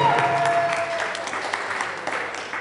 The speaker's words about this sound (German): Hey! Kleinen Applaus für den Klassiker.